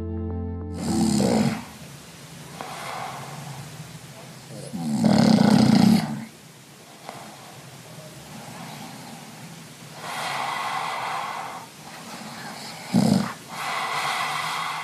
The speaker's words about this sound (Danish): Ja, det man kan høre her, det er mig, der snorker. Øh, det er optaget med en app på min telefon, som også hævder at kunne måle min søvnkvalitet.